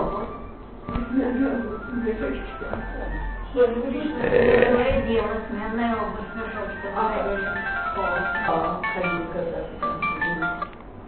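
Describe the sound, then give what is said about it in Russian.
A mobile phone ringtone plays a bright, repeating electronic melody for about eleven seconds as a mother calls, fairly loud, with people talking faintly underneath. “Мама звонит. Чего она звонит?”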